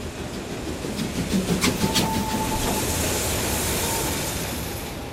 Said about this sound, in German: und schon stampfte die Dampflok in den halbdunklen Bahnhof ein.